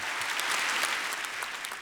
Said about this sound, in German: Einige Preisträger warfen Israel Völkermord vor und forderten eine Waffenruhe. Applaus im Publikum.